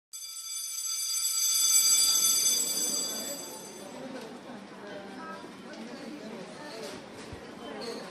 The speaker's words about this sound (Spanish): Adentro, adentro, vamos. Sí, es el timbre lo que acaban de escuchar. Terminó el recreo